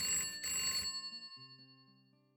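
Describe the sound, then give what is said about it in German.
A telephone, the Poplophon, rings in two quick, bright bursts, then its shrill metallic tone hums on and slowly fades. No voices are heard. “Liebling, das Poplophon klingelt.”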